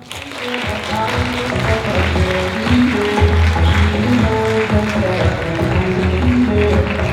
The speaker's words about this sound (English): I'd like you to give a warm round of applause to Maureen.